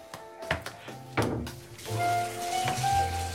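A few dull knocks and clunks, then water starts gushing steadily from a bathtub tap, a continuous hissing rush that keeps going to the end.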